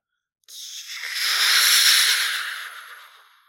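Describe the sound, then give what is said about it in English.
A voice imitates a jet engine with a breathy, rushing whoosh that swells to a loud peak and then slowly fades away, like a plane passing by. It is a single sustained sound with no talking. “He took my jet sound effect I made and put it to a video of a real jet flying by.”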